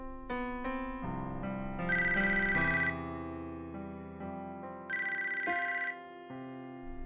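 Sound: telephone ringing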